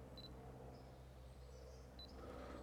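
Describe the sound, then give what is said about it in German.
A camera being switched off, giving two short, high-pitched electronic beeps about two seconds apart over a steady low background hum, with no one speaking. “Ähm, ich mache mal kurz die Kamera aus, denn die schaltet sich gleich wieder aus.”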